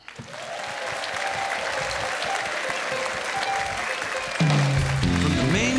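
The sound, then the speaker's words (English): A sold-out live audience in the showroom of the South Point Hotel, Casino and Spa on the South Strip in Las Vegas applauds steadily at The Dennis Bono Show, a dense wash of clapping that fills the whole stretch, with musical tones rising beneath it toward the end. “Once again, a sold out audience enjoying today's show.”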